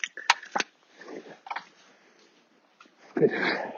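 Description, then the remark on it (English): A dog named Wolf chews on a dirty beet found on a muddy path toward the Singing Ringing Tree, with a few sharp, wet crunches spaced out over a few seconds and a louder burst of gnawing at the end. “But don't eat it. Drop it.”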